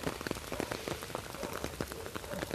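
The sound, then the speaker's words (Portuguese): Steady rain pattering down on a house with water in it, with dense irregular drips and splashes of water hitting a surface, moderately loud and continuous, with no voices. “Olha minha casa com água.”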